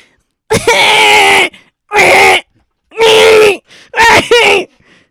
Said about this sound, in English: And this is the sound of a child crying in line at Star Tours in Disney World.